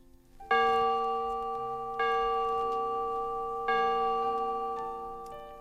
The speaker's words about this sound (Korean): 성당의 괴종시대가, 괴종시계가 12시를 치더니 이어 앙젤리의 종소리가 들려왔다.